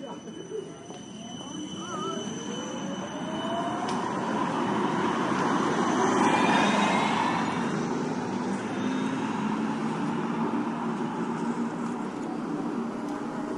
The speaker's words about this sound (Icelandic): Spóruvagnin óg áfram fram hjá Líseberg, stærsta tífóli í Norðurlandara